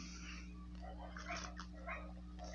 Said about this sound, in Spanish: no se escuchaban como unos gruñidos o, ronquidos. Era el Gordis, el perro gordo de, la casa. Yo le digo Gordis, creo que se llama enano o no sé. Y pues realmente está muy obeso.